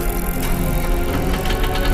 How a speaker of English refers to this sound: However, he couldn't get the generator to start up again.